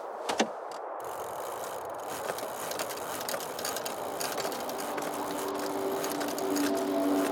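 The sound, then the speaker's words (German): Pedals turn the mechanical drive of a pedal-powered airplane: a steady whirring rush dotted with quick ratcheting clicks, joined near the end by a faint humming tone, growing slightly louder, with no voices. “Jetzt ganz fest in die Pedale treten, Leute.”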